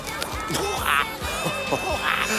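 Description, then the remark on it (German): A talking parrot vocalizes, a steady run of raspy squawks and warbling chatter with rising and falling pitch, one call after another for a couple of seconds. “Ein sprechender Papagei.”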